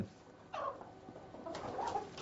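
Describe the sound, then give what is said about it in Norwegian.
Soft, throaty clucking from a hen, a couple of short bursts with a murmuring quality, and no one talking over it. “For det er ei høne, det kan være ei høne som legger massevis av egg.”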